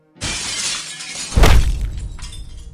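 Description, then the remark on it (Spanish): Window glass shatters in a loud crash as a man throws himself through a second-floor window, a burst of bright breaking noise followed by a heavy impact and scattered shards tinkling as they settle. No voices are heard. “Mi padre, el hombre más fuerte, el más bueno, el más feliz que conocía, se lanzó por la ventana del segundo piso.”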